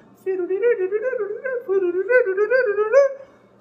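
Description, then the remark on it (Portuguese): A voice vocalizes a fluttering, wavering woodwind-like melody without words, like flute and clarinet figures, in two close phrases of quick rising and falling notes, clear. “e aí você ouve as flautas e as clarinetas fazendo”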